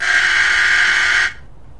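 doorbell ringing

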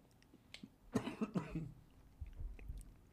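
coughing

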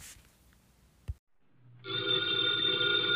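telephone bell ringing

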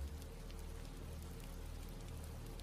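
thunder with heavy rain

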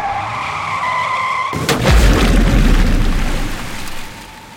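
car crashing

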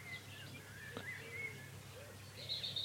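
morning birdsong

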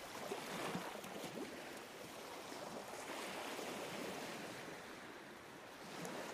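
ocean surf

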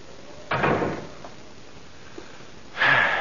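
door being closed

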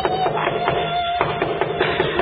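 knocking on a door

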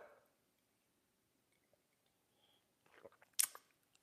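sipping coffee

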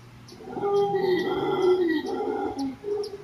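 howler monkey howling

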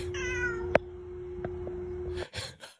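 cat meowing

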